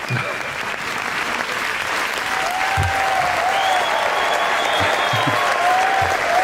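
An audience applauds steadily for several seconds at the start of a live show featuring music groups, a dense, even wash of clapping that stays loud throughout, with a few thin whistles rising over it.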